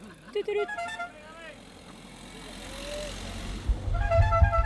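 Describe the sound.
A car approaches on a very steep stretch of road, its low engine rumble swelling from faint to loud over a few seconds, with people's voices calling out around it.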